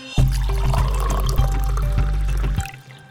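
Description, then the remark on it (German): Coffee poured into a cup in one steady stream for a couple of seconds, the pitch rising as it fills, clear with no voices. “Das klingt nach einem Thema, das nach einer Tasse Kaffee ruft.”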